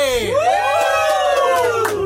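Loud, close shouting and whooping from a few male voices, one long rising yell held for about two seconds over rowdy background voices, like band members hollering together.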